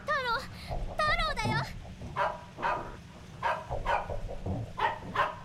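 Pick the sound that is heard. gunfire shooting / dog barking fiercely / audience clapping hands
dog barking fiercely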